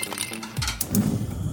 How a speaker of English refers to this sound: But what about those sounds? Those are the sounds of a new Frigidaire kitchen suite, complete with the latest technology to keep food fresh, dishes clean, and cooking needs met for all families.